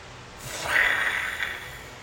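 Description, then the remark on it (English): One long, heavy breath, an airy hiss that swells quickly to a loud peak and then slowly trails off over about two seconds. Nobody speaks. “Obviously, breath.”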